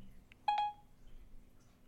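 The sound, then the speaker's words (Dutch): A quick pair of bright electronic phone tones, dialing beeps from a voice assistant calling a mobile number, sounding clearly before fading into a quiet background hum. “laten we hem eens eventjes gaan bellen. Bel Maarten van Woerkom.”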